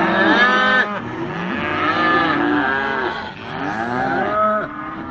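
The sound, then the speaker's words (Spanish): A weaned calf, separated so the cow can be worked, bawls loudly and insistently for its mother, its long drawn-out moos overlapping with other cattle calling, the cries rising and falling in near-continuous waves with no pause. “El ternero destetado por, eh, para poder trabajar la vaca.”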